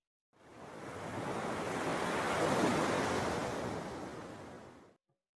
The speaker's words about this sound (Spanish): ¿Qué te imaginaste al escuchar este sonido? Probablemente hayan pensado que era el sonido del mar. Sí, el mar.